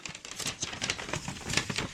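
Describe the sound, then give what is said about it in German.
Paper crinkles and rustles for a couple of seconds as it is opened, a dense stream of dry crackling bursts with no voices. “Und was ist auf dem anderen Papier?”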